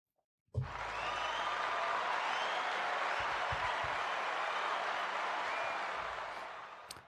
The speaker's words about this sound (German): Das ist über einen riesen Applaus für die Mädchen heutzutage, die das Wir-Gefühl intrinsisch aktiviert haben.